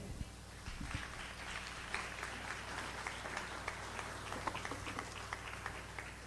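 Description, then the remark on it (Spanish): An audience applauds for God, called the King, in a steady, dense wash of clapping that holds at an even level for several seconds, with a low hum underneath and no clear voices. “¿Alguien le puede dar un aplauso al rey?”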